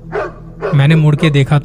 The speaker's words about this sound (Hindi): मैं कांप रहा था पीछे से कुत्तों के भौंकने की आवाज आ रही थी